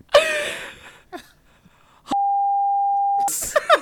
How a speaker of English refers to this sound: I'm, uh, can I beep that out?